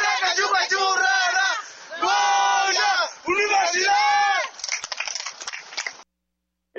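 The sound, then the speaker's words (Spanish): A large stadium crowd at the Estadio Olímpico de Yanira chants in loud, rhythmic bursts of many voices, with roaring cheers between the chants, the shouting swelling and dipping in waves before cutting off abruptly. “eso es lo que se escucha aquí en el Estadio Olímpico de Yanira.”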